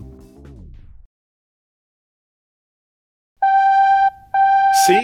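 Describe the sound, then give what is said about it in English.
A telephone rings twice with a bright electronic warble, each ring loud and steady, separated by a brief pause, following a falling musical sweep and a stretch of silence; an incoming call on the live call-in show Absurdia. “I told you we'd get a call.”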